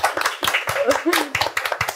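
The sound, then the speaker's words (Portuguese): An audience in Barretos claps for the Hospital de Amor communication team, a steady burst of applause with many hands making dense, crisp, uneven smacks at a lively volume, with faint voices underneath. “Massagem, palmas, por favor, para eles.”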